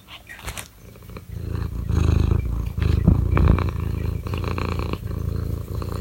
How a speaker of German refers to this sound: Katze schnurrt auch. Falls ihr das nicht hört, warte mal.